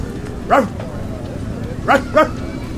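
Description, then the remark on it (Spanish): A man's voice imitates a dog barking, giving three short woofs, one alone and then a quick pair, over a steady low background hum. “Yo le hago de perro al viejo, que le gusta sacarme a pasear.”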